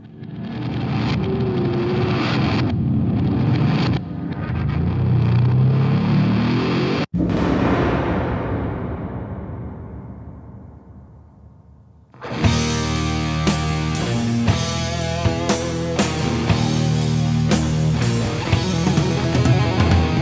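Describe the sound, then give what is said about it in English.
Swirling backwards guitar and a spacey, alien engine-like revving roar on a record fill the first half, winding down in a long falling sweep to a crash as a loud full band abruptly kicks in. No one speaks. “some backwards guitar wankery, some spacey alien engine revving, complete with a crash, and a bluesy dirge with some ah filler.”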